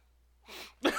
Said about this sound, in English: that's you breathing. That's not me breathing.